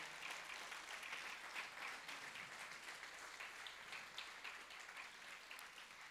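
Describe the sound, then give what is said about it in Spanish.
A church audience breaks into sustained applause for the Holy Spirit of God, many hands clapping in a dense, steady wash of sound with no pauses, holding at an even level from start to finish without any talking. “Dale un fuerte aplauso al Espíritu Santo de Dios.”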